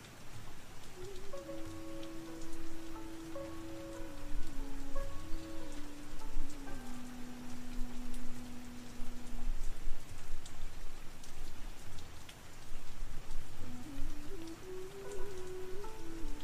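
Steady rain falls in a continuous, even hiss, with a soft sustained melody of low, gliding tones playing over it for much of the time.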